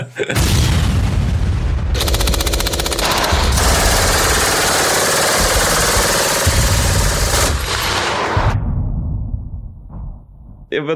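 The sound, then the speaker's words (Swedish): Loud, dense battle sounds: heavy booming explosions layered with rapid bursts of machine gun fire, sustained for several seconds before fading out, with a roaring, chaotic texture throughout. “lite explosioner och kulsprutor innan ja. vi drar igång?”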